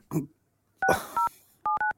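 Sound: telephone number being dialed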